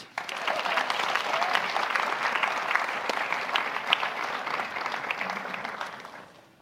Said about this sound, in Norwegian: Selveste utenriksministeren, eh, Espen Barth Eide. Gi han en liten applaus.